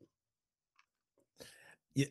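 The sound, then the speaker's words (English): Someone chugs a drink, with a few faint clicks and then two quick gulping swallows, the last one loudest, in an otherwise quiet moment. “Chug, love it.”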